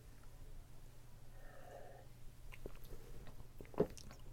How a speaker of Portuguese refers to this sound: Vou tomar uma aguinha porque eu falei direto sem tomar água.